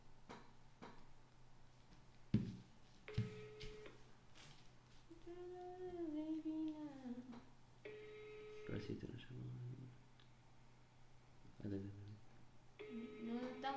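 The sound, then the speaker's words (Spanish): A phone rings with an incoming call, its electronic tone repeating in bursts while people talk. “Ay, me llamó”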